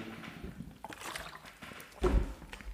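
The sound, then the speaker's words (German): Someone takes a sip of water: faint sloshing and small liquid movements, then a short, louder gulp near the end. No one speaks. “Jetzt nehme ich nur noch mal einen Schluck Wasser.”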